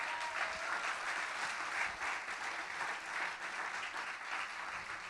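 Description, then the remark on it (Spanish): Sustained audience applause given to God, a dense steady wash of many hands clapping at an even, moderately loud level for the full five seconds, with no voices standing out. “Dele un aplauso a Dios si lo cree.”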